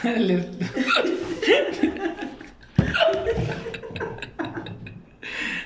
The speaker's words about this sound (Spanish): Ayuda. No me puedo librar del hipo.